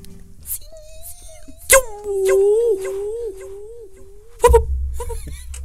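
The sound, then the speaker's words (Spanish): A voice imitates an arrow being shot: a quick sharp onset, a long wavering whistle-like tone for a couple of seconds, then an abrupt thudding burst at the end, fairly loud. “Te hago el sonido del flechazo.”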